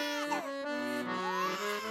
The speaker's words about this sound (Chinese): 只听到小宝宝的哭声越来越大声，整个房子都是婴儿的哭声。